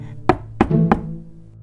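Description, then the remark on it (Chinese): A little girl knocks on a door: three sharp knocks in a quick, even rhythm, each a crisp rap with a dull wooden ring that fades between hits. No one speaks. “她敲了敲门”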